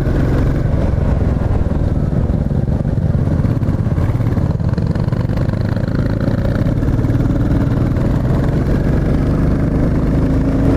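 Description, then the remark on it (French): The long-stroke engine of a Royal Enfield Classic 350 motorcycle runs steadily for several seconds, loud, with a deep, throbbing low-end rumble and a slight rise in pitch toward the end; no one speaks. “Et puis là, vous entendez le moteur. C'est un moteur longue course, donc c'est pas un moteur qui va prendre des tours.”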